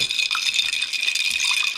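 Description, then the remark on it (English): Ice cubes clink and rattle in a glass of mimosa, a continuous bright jingling with liquid sloshing underneath, no voices present. “Some nice ice cube ASMR.”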